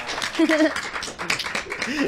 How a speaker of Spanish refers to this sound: Pues muchísimas gracias, chicos. Un aplauso, por favor.